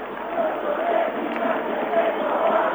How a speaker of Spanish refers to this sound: Terminó el primer tiempo con estos aplausos. Despiden los hinchas de gimnasia a los muchachos de Gorosito. Así se va el Lobo.